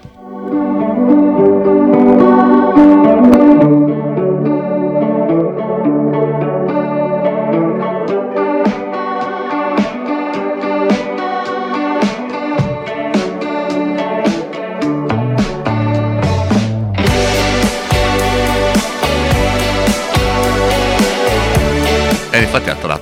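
A rock song plays steadily, opening with chiming, effect-laden guitar before the full band crashes in with heavy, driving drums and distorted guitar near the end. No one talks over it.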